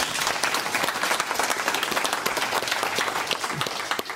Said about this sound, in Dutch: Geef hem maar een applaus.